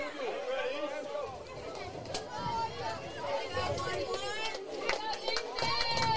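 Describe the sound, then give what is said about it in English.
Crowd noise at a baseball game involving Tullahoma: a steady, dense wash of many overlapping voices chattering and calling out at once, holding a fairly loud, even level with occasional louder rises throughout. “the crowd is really into this game now.”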